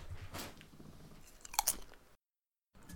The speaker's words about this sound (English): Let me get a chip.